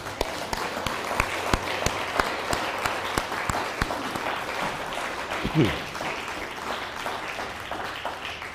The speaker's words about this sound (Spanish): Feliz inicio de semana y bueno, y damos un fuerte aplauso al que se merece toda la gloria, toda la honra, toda la alabanza, a Kadosh Barujú, el santo bendito sea.